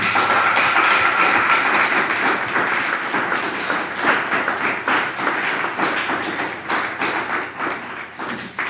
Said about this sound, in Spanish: aplauso a toda la nación.